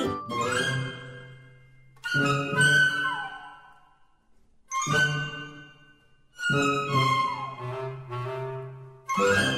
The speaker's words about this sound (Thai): เสียงออดดังแล้ว อุ้ยต้องไปเข้าเรียนแล้วล่ะค่ะ